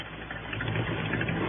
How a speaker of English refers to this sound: As I got out in front of the office, Ham Pratt pulled up in his Jeep.